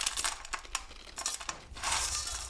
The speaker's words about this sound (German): füllt vorsichtig goldbraune Snacks aus einer Metallschüssel in durchsichtige Plastiktüten.